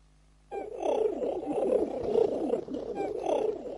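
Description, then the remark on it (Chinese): Goofy's six missing pigeons, used for his magic act in a Mickey Mouse cartoon, cooing outside in a steady, overlapping murmur of low, throaty warbles that starts abruptly and rolls on for about three seconds, swelling and easing in soft pulses. “好主意，米妮，让我们注意听鸽子的咕咕声。”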